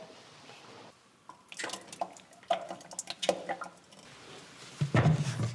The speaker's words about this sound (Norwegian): The cream rises to the top and I scrape that off into a jug and then pour the cream into the churn. Now I tend to pour it at quite a height so that it aerates, so that it turns quicker.